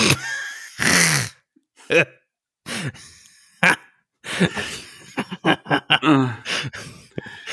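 A single sharp, loud sneeze bursts out near the start, followed by scattered short breaths, murmurs and brief vocal sounds.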